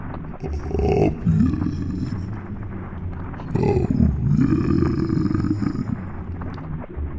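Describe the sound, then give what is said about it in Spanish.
A deep, choked, eerie voice lets out two long drawn-out howls with a gravelly, growling edge, loud and separated by a brief pause. “Pero en serio, esta vez escuché como una voz macabra, ahogada, con un aullido que decía”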